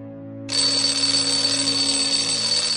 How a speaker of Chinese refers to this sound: 早晨还不到七点，闹铃声就开始从旅社的各个房间传出了，有公鸡打鸣，也有电子乐。